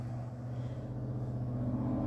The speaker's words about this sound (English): This freaking truck. I hate trucks, dude.